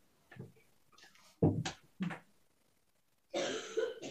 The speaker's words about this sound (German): betretenes Schweigen und Husten aus dem Hintergrund.